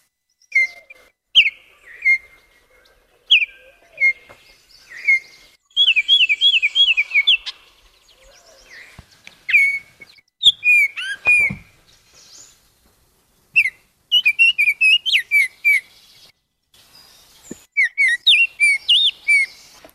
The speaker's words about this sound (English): So that's the Baltimore Oriole. And I, I have to say, the recordings don't always do justice to the bird because they sound so wonderful when you're out in the woods where there's a little bit of an echo and other things around to hear.